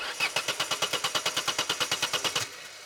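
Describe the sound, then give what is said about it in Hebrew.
A Ford pickup truck engine cranks in a rapid, even rhythmic chug for a couple of seconds without catching, as the driver repeatedly tries to restart it after it stalled on a dark, foggy road; then the starter cuts off, leaving a faint low hum. “ניסיתי מספר פעמים להפעיל את המנוע, אבל לשווא. הוא לא הותנה.”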